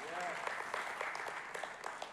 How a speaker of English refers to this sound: And by the way, Dr. Onofek is one of the licensed therapists in the house. Uh, so those of you, yeah, yeah, yeah, you may want to give him a hand clap.